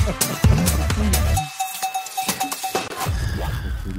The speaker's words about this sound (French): Attention, jingle.